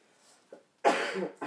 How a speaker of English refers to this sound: Sir, you're gonna be okay. You're coughing a lot.